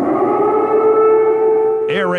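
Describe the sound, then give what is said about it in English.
A civil defense siren in Kyiv, the capital of Ukraine, wails with a steady, sustained tone, echoing broadly across an open area before a voice briefly cuts in at the very end. “siren in Kiev, the capital of Ukraine.”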